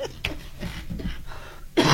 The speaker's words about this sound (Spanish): Ay, perdonen por esta tos.